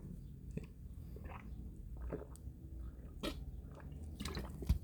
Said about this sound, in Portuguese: deixa eu só dar um golo d'água tomei água